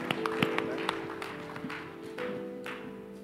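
A room full of people in a church clapping in scattered, overlapping bursts, moderately loud, with a steady sustained tone from music or an organ humming underneath.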